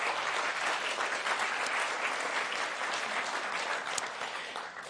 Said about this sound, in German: Alles genau, bitte fetten Applaus.